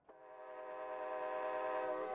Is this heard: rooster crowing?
no